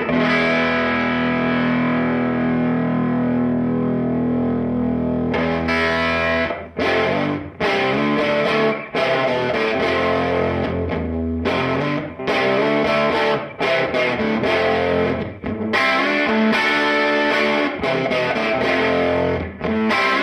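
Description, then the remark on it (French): Heavily distorted electric guitar through an overdriven tweed amp: a long, loud sustained chord rings out, then gives way to choppy, rhythmic strummed chords with brief gaps, with no voices. “ce que j'appelle un peu le domaine très cracra, la … où l'ampli est en train de mourir”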